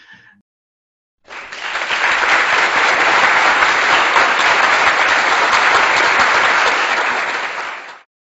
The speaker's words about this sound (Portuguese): Vamos lá, gente, uma salva de palmas para ele, né?